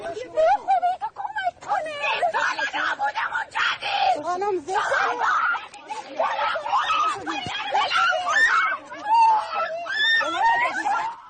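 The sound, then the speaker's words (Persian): A girl screams and cries out in distress, her high, strained voice shrieking almost continuously, with other agitated voices mixed in throughout; she is protesting a police officer's treatment of her over her hijab. “این صدای جیغ دختریه که به برخورد معمور نیروی انتظامی در مورد هجابش اعتراض کرد.”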